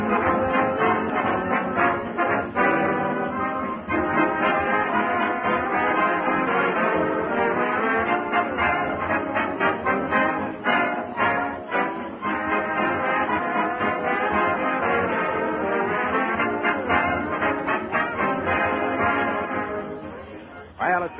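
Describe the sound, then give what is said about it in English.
The band play a lively, full-bodied musical number for about twenty seconds on the Fibber McGee and Molly radio show, with dense, sustained brass and strings at a steady, loud level and no voices. “certainly easy to listen to … sparkling music”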